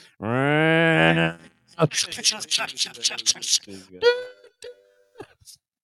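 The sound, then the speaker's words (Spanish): A voice mimics a train horn with a single long, loud, droning blast lasting about a second, then a person talks quickly for several seconds afterward. “La gente cagándose de risa y el cholo dice un chiste y va a llegar con el pinche remate y luego se oye el pinche tren.”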